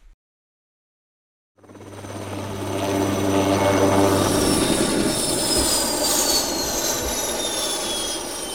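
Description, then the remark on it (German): A yellow ADAC rescue helicopter on an emergency mission in Ingolstadt, flying from the hospital, roars loudly, its deep rotor throb steady under a rising, whining turbine pitch that slowly drifts downward; no voices. “Ein Rettungshubschrauber im Einsatz.”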